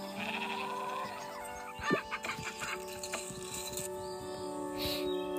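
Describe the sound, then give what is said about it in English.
A goat bleats a few times in a farming video game over a steady musical game background, the wavering cries rising briefly above the mix before it settles back to the continuous tune. “Goats take carrots.”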